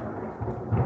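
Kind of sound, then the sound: nature, thunder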